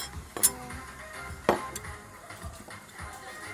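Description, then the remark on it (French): Two sharp metallic clinks of cutlery, one early and one about a second later, distinct, with quiet background noise and a few softer knocks in between. “Attention avec les couverts”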